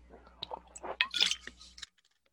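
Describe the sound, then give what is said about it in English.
Quiet wet mouth noises of someone sipping water, a few slurping clicks and a soft gulp over about two seconds, with no talking. “It is, excuse me, take a sip of water.”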